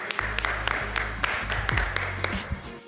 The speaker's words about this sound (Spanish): Gracias, chicas. Muy bien. Aplauso para todos. Todas.